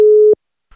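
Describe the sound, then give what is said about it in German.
A single steady telephone tone, like a ringback while a call connects, sounds briefly and clearly, then cuts off into silence with a faint rustle near the end; a call to someone's mobile phone. “hat um ganz pünktlichen Anruf gebeten”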